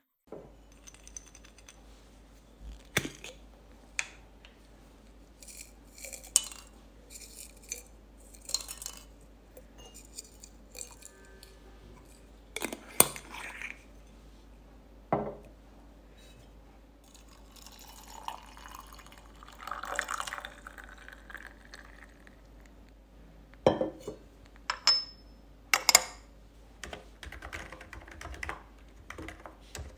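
Quiet, close-up tea sounds: liquid pouring and light clinks of cups, with steady keyboard typing clicking through the scene. No one speaks.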